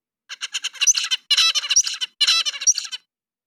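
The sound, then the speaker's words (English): An adult songbird sings a bright, rapid song: a run of short repeated notes building into dense trilled phrases, three bursts in quick succession, clear with no talking. “and in case you want a reminder the adult singing is this”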